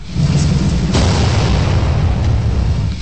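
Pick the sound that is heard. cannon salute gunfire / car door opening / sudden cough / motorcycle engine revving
cannon salute gunfire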